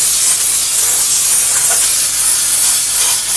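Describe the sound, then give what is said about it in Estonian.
A loud, steady hiss of a handheld steam cleaning gun spraying a shoe to wash the dirt off, continuous for the whole stretch with a slight wavering, no voices. “et ma teen puhastusainega kokku selle talle ja teisest auruga pesen, pesen selle mustuse maha.”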